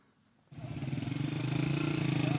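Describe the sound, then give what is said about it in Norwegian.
After a brief quiet moment, small moped engines start up sharply and keep running with a steady, buzzing putter that grows slightly louder, as young men ride home on mopeds in the town of Azaz in northern Syria. No one speaks. “Unge menn på mopeder kommer hjem.”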